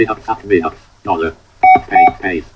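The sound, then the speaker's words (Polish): Two short, identical electronic console beeps in quick succession, each a brief steady tone, produced by pressing arrow keys in a computer's text console, sounding while a man keeps talking over them. “E, ruch strzałkami powoduje właśnie E, wygenerowanie tego krótkiego e, bipu.”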